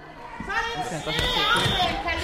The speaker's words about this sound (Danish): Forældre, der taler i baggrunden.